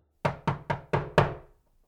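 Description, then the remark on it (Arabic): Five firm knocks on a very old wooden door covered in decorative drawings of flowers, leaves and lines, at the end of a narrow alley, in an even, steady rhythm, each a hollow thud with a short ring-out, the last slightly louder, then silence. Clear, with no voices. “رجعوا أخدوا زروبي ضيقة اللي بآخرها في باب خشب قديم كتير كله رسومات مزخرفة ورد وورق نبات وخطوط الباب كان مقفل ما بيفتح مع انه ما في قفل دقت ميرا عليه”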